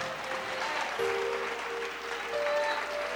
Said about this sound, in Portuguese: Vamos aplaudir mais ao Senhor Jesus.